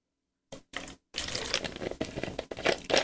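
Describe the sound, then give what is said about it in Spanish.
Someone takes a sip of water: two brief clicks, then a couple of seconds of soft, splashy, crinkly handling noise. It is fairly quiet, with no talking. “Vamos a tomar un poquito de, de agua, no café, vamos a tomar un poquito de agua ahora.”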